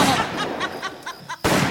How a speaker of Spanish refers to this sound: ¿Qué fue eso? ¿Qué ha sucedido? Fueron dos tiros.